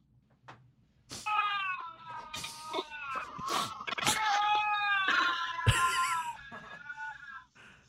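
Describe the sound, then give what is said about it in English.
Two lynxes face to face yowl back and forth in loud, wavering, drawn-out cries, overlapping and rising and falling in pitch for several seconds, with brief harsh bursts mixed in and no talking. “I think it's two lynxes.”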